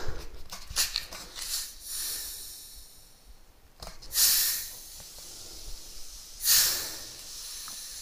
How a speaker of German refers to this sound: Ja, ihr hört es, das ist Mineralwasser.